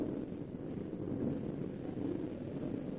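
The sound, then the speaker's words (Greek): A steady, low rumbling roar of air from a fan buffeting the microphone, continuous and fairly loud throughout with no voices. “Αφήστε το, γιατί Ο ανεμιστήρα την κάνει τη δουλειά αυτή. Λύσε τον ανεμιστήρα.”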